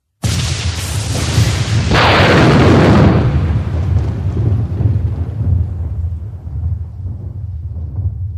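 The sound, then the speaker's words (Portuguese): A loud thunderclap with lightning bursts with a sharp crackle, then rolls into a deep, heavy rumble that slowly fades over several seconds, with no voices. “Isso é barulho de relâmpago e trovão.”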